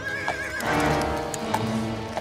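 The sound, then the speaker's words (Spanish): A horse whinnies with a wavering, high-pitched neigh while hooves clop rhythmically, loud and steady over a dense rustling background, with no voices. “Eh, sube, sube, vamos y lo montó en su caballo.”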